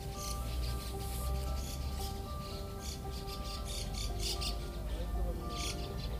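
Birds chirp outdoors during a picnic in quick, repeated bursts throughout, fairly soft, over a steady low background hum and rumble.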